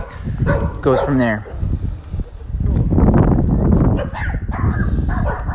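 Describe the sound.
A dog barks a few times in short, sharp bursts early on, fairly loud, while a person keeps talking over it.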